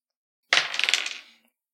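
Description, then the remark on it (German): Dice clatter onto a hard table in a roll for an escape manoeuvre: a sharp first impact followed by a quick series of rattling bounces that fade out within about a second. Fairly loud, with no voices. “Ja, dann hätte ich gerne einen Würfelwurf für das, äh, erstmal für ein Befreiungsmanöver generell.”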